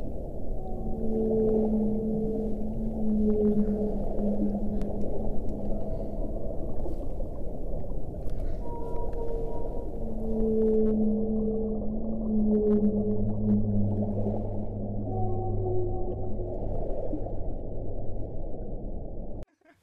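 Whale song: long, low moaning tones that rise and hold, overlapping one another over a steady underwater rumble, continuing for about twenty seconds with no talking.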